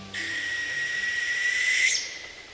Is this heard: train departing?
no